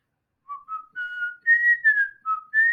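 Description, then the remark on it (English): A person whistles a short, clear tune of about seven distinct notes that rise and fall in pitch, fairly loud, with no talking over it. “that was a good whistle too. It was it was very clear.”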